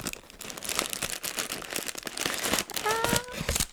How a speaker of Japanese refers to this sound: この箱を開ける時がねちょっとドキドキなんですよね開きましたクッションのね紙が入ってるんだよねこうやってね